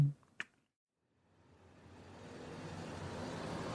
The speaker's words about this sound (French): Je prends ma voiture et je roule et je vois pas qui m'a qui défile parce que euh, y a rien, il y a pas de repère, il y a pas de panneau, il y a rien. J'avance.